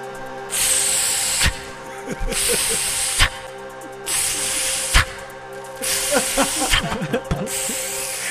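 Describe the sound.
A voice imitates the hiss of dry ice fog: four long, steady, breathy hissing bursts, each about a second, separated by short pauses with faint low rumbling underneath.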